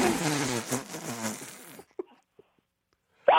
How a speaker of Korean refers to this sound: 자, 이번에는 고라니 소리예요. 자, 이제부터는 이제 소리. 예, 이제부터는 정확하게 저도 판단합니다. 알겠습니다. 자, 고라니 소리 갑니다. 고라니. 예, 갑니다.